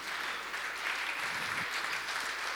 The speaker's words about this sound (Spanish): Y, si Dios ha hecho algo en tu vida, ¿por qué no le das un fuerte aplauso y le dices gracias?